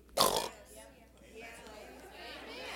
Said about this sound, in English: Blow your nose. Thank you, Lord, I'm healed. I know that didn't sound too pretty, but you've done it too.